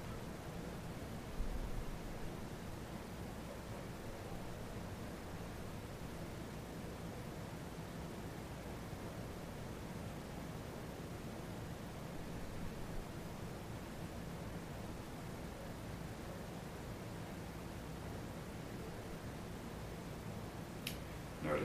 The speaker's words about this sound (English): notice that as you're exploring those sensations, you're still aware of the sound of the air conditioning, the dog barking outside, the feelings in the rest of your body.